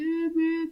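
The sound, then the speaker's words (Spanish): A voice imitates an alert tone, holding one steady, buzzy pitched note for under a second with a brief dip partway through, with no other sounds. “Ese fue un sonido de alerta.”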